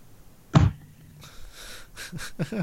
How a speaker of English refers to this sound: For those of you listening on the audio, I was playing with a deck of cards. I slammed them on my table.